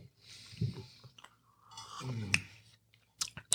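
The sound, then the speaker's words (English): Crunching and chewing of a crisp waffle, with scattered sharp clicks and soft mouth noises between bites, no talking. “We should just do 30 minutes of us eating waffles”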